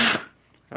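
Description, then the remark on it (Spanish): A sharp, loud sneeze bursts out, followed by a brief silence before a second noisy burst begins at the very end. No one speaks. “Salud.”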